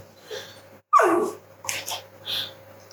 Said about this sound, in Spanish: Os recordamos lo de la perra, ¿eh? Por el amor de Dios, que no calla.